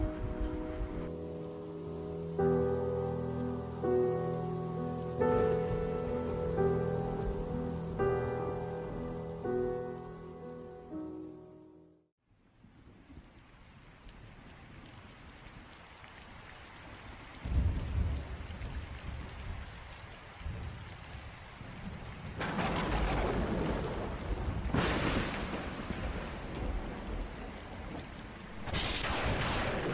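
Tonal music plays for about twelve seconds, then gives way to a storm: steady, loud rain and howling wind through bare trees, with several sharp thunder cracks bursting through near the end. No one speaks.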